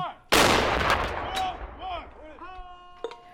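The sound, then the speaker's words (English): A single loud boom of the presidential salute battery's ceremonial artillery at Joint Base Myer-Henderson Hall cracks out, then rolls away in a long, echoing tail while faint voices sound afterward. “And I wouldn't have heard the presidential salute battery.”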